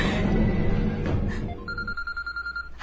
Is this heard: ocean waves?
no